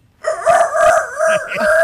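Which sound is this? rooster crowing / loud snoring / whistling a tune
rooster crowing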